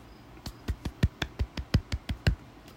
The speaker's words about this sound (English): It's only a small clap because it's the Cowboys versus the Steelers, and who likes either?